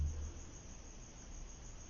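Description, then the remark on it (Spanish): Faint crickets chirp steadily over a soft background hiss, a quiet, continuous outdoor night ambience with no one speaking. “y puedes escuchar a los grillos”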